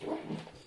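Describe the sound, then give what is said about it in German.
A single short sneeze, a quick two-part burst with a breathy, slightly tonal edge, moderately loud and heard on its own with no talking. “Ja, Gesundheit.”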